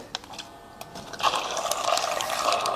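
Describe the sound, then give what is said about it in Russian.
The small motor of a milk frother with its whisk attachment whirs steadily while milk churns and swirls as it is heated, starting after a few light clicks and building to a continuous, busy sloshing hum. “Теперь можно включить прибор и остальные ингредиенты уже насыпать при работающем двигателе.”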